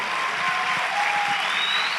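An audience in a church in Brazil bursts into sustained applause, a dense, steady wash of many hands clapping at an even loudness, with a faint whistle-like tone threading through it and no speech.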